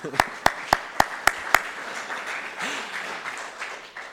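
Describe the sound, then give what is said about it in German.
Six loud, sharp claps land in a steady, quick rhythm over a softer wash of crowd applause that keeps going after the single claps stop, with faint voices mixed in; the audience applauds a longtime friend of the speaker. “Ich glaube, ihr dürft ruhig mal einen Applaus geben.”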